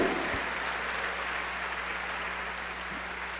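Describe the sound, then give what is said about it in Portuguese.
A church audience applauds steadily, a dense, even crackle of many hands clapping at once for a few seconds, with a low electrical hum underneath and no voices. “Então, quero dar mais uma aplauso.”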